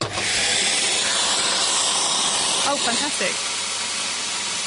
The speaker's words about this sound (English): Wow. It's a. Uh, can you hear me over the sound of the vacuum cleaner? I don't know if you can